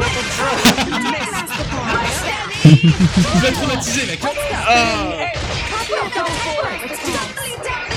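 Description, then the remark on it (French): Frantic video game combat with characters talking over one another nonstop, punctuated by sharp whacks, whip-like cracks and swishes, loud and dense throughout with no pauses; the game's fights last about 15 minutes. “ce que vous avez entendu, c'est littéralement tous les combats du jeu.”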